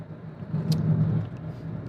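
Steady low engine drone and road rumble inside a moving bus, continuous and fairly loud, with a brief faint rattle partway through; no talking.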